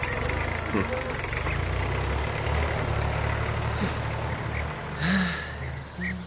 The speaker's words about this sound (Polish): Rozumienie takich międzynarodowych słów jest łatwiejsze, jeśli towarzyszą im dźwięki ściśle z nimi się kojarzące, tak jak w przypadku tego traktora. Traktor. Traktor. naja, der Traktor.